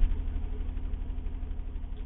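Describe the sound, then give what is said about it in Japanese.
A steady low car engine rumble hums at idle, heard from inside a parked car before setting out, with a constant vibration and no voices over it. “出かける前の車で1分間ぐらい喋るっていうのが、僕にとってはちょうどいい気がしてきました”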